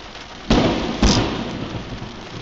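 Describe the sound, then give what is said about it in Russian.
Steady rain hisses throughout while two sharp, loud thunder cracks strike in quick succession, with lightning hitting a few metres from people, each booming and then rumbling off as the downpour continues. “Молния ударила в нескольких метрах от них.”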